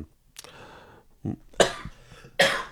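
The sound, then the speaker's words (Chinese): A person coughs several times in quick succession, a few harsh, breathy bursts spaced unevenly over a couple of seconds, the last two the loudest, with no talking in between. “没事，我有点咳嗽”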